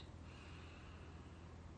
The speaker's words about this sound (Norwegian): pust inn her.